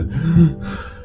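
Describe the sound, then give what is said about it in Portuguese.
A voice imitates the heavy, labored panting of someone leaning with both hands on the knees: one drawn-out breathy exhale with a rough, voiced edge, fairly loud, with no words spoken. “Eu tô escorado no meu joelho, sabe quando você fica com as duas mãos assim no joelho, assim, respirando, assim.”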